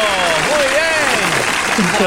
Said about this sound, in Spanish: ¡Ole! ¡Ese aplauso!